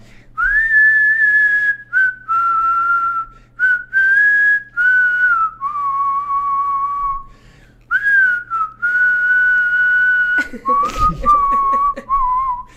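A person whistles a melodic tune, with sustained and sliding notes in short phrases separated by brief pauses, ending with a quick rustle near the end.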